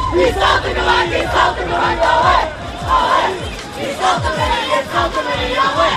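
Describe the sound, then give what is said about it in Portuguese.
A large crowd of students at a student latada (procession) in Covilhã shouts and chants loudly and continuously as Cavaco faces them. Many voices overlap into a dense roar with rhythmic bursts of cheering throughout. “Na Covilhã, Cavaco teve um banho de multidão e enfrentou agilmente uma latada estudantil.”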